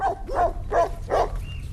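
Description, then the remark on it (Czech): Dogs on the Cihlář family's regenerative farm near Zruč nad Sázavou barking in a quick series of four sharp, evenly spaced barks over a low rumbling background hum outdoors. “Na farmě rodiny Cihlářových mě vítají štěkající psy, osel, pasoucí se koně a také spousta zemědělské techniky.”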